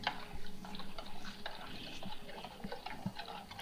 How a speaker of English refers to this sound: I'm just kind of stirring it around. What I'm doing is I'm kind of dragging the spoon on the bottom of the bowl.